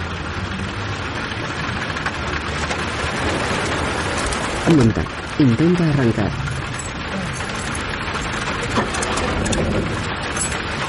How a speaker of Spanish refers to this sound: Llueve copiosamente.